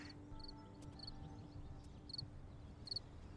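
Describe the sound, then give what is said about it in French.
A cricket chirps faintly in short, high-pitched bursts, about four of them at uneven intervals, over a low, steady outdoor wind rumble at a natural site in Île-de-France, with no voices. “Aujourd'hui, j'ai été accueilli par un grillon.”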